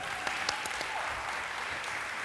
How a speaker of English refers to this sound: So I'm glad that you, you and you can you can clap. You can clap. That's allowed.